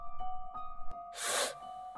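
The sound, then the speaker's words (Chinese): A single breathy, sobbing hiss swells up for about half a second, harsh and airy, over a steady faint hum, with soft clicks before it and no talking. “…发出嘶嘶的抽泣声。”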